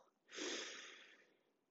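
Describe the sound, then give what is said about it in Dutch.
A single slow breath drawn in through the nose during a breathing exercise, a soft airy rush lasting about a second that swells quickly and then tapers away, on its own with no talking. “En je ademt in door je neus.”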